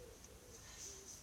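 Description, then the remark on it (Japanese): A pigeon coos softly, a low, murmuring call repeating across the moment, faint against a quiet background with a thin high hiss and no one talking. “鳩が鳴いてたので鳩も応援してくれると思って ほら聞こえるかな”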